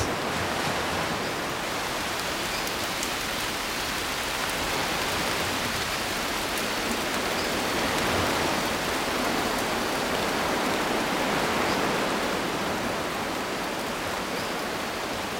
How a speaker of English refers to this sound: I, I like the sound of the the ocean, the wind, the rain, all those natural white noises and, and I love them when they are all combined.